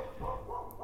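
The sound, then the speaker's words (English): A neighbour's dog barks faintly, a short muffled burst of protective yapping with no one speaking over it. “Oh, that's the neighbour's dog doing its protecting business.”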